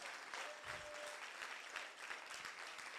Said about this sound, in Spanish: ¿Cuántos le dan un aplauso a la voluntad de Dios?